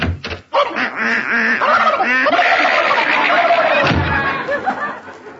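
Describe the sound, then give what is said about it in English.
Loud ducks squawk and quack in a frantic, overlapping scuffle as Herman and a duck fight in a pantry. A brief lull comes near the start, then the chaotic commotion carries on without a break. “are Herman and that tux uh, and and that duck still fighting in the pantry?”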